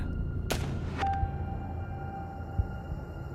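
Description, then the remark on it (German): Two sharp single gunshots crack about half a second apart over a steady low rumble, the second leaving a faint ringing tail before the background settles again. The shots are fired at night as two people walk back from a Boeing airliner toward helicopters. No one speaks. “Als diese beiden sich auf dem Rückweg zu den Hubschraubern befanden, fielen plötzlich einzelne Schüsse.”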